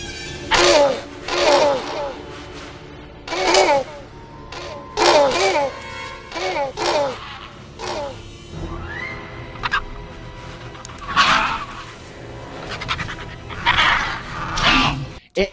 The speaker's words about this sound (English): those sequences at the end with the raptors, like after they give them the eggs and they're just like barking at each other